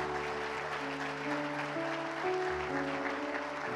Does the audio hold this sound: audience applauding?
yes